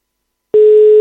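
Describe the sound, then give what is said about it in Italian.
After half a second of silence, a telephone ringing tone comes on the line: one steady, loud, slightly buzzy tone that holds unbroken to the end, with no voices. “No, ancora c'era lo squillo”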